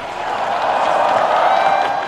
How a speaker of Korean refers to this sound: 우리나라 스키점프 국가대표팀이 소개되자 큰 환호성이 터져나옵니다.